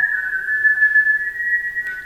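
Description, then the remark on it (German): A group of people in a museum whistle together, holding one steady, sustained note with slightly different pitches blending into a shimmering chorus. The sound is fairly loud and continuous, with no talking. “Oft beginnt also jemand mitzupfeifen, der Pfeifchor schaukelt sich hoch, plötzlich pfeift das ganze Museum.”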